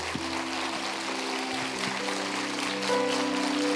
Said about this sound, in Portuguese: Por favor, se coloque em pé. Você pode aplaudi-lo?